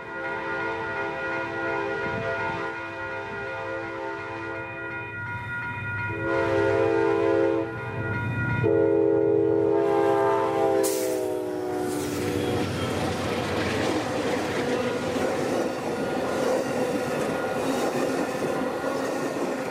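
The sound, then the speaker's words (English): A train rolls along the rails coming into Fresno over a series of level crossings, with a steady, loud rumble, sustained tonal horn-like hums layered over it, then a broad rushing clatter taking over in the second half. “Just passed on the other side of the train.”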